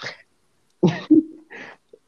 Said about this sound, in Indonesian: Takutnya batuk-batuk sesek.